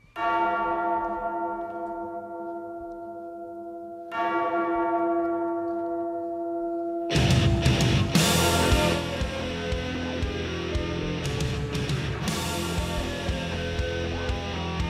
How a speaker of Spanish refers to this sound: sonaban ahí unas campanas. Las campanas de la medianoche. Unas campanas inspiradas